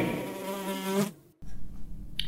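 A fly buzzes loudly for about a second at the opening of the show Fluen på veggen, its steady droning hum cutting off abruptly, followed by a low rumbling background and a brief faint tick.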